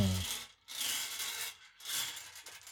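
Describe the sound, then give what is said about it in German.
Balls rattle and clatter inside a turning heavy lottery drum about 25 centimetres tall, coming in two rough bursts of dry, scraping clicks with a brief pause between them. No one speaks. “Das ist jetzt das Geräusch der Kugeln.”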